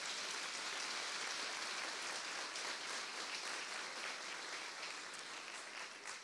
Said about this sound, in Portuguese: Você pode aplaudir ao Senhor bem forte.